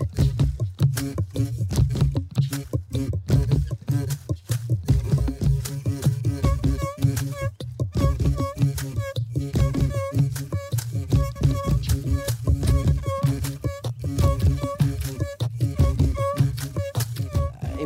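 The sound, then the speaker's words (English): A steady, looping percussive groove tapped out on tree branches, with dense woody knocks and hollow resonant tones repeating in a tight rhythm, loud throughout with no talking. “creating a real piece of music, not just hitting branches and stuff”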